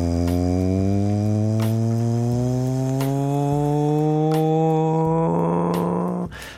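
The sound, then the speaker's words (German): The loud electric motor of an old Berlin S-Bahn train with wooden seats and heavy metal door handles whines steadily. Its harmonic hum rises slowly in pitch as it accelerates, with a few sharp clicks and clunks before the sound cuts off abruptly. “Das ist die alte Berliner S-Bahn, die noch mit den Holzsitzen war und wo man die Tür mit wahnsinnig schweren Metallgriffen auseinanderziehen musste.”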